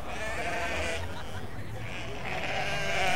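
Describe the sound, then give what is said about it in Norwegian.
A flock of about 20 sheep in a park's farm animal area bleats as they come toward the speakers, many overlapping wavering calls forming a steady, noisy chorus that fills the whole few seconds. “Uh, folkens, hvorfor kommer alle sauene bort mot oss? Det er sikkert 20 sauer.”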